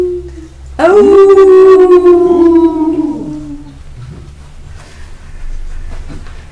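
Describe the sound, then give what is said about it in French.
A voice imitates a wolf's howl: one long, loud wail that slowly slides downward for about three seconds, then fades into a low background hum and faint murmuring. “C'est le loup qui hurle”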